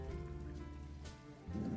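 Steady rain falls in a continuous, even hiss with soft pattering drops, fairly quiet overall, with a low rumbling undertone that swells slightly near the end. No one speaks.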